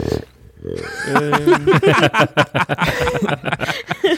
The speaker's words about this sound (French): C'est le bruit du percolateur, ça, en fait. Le café est bientôt prêt.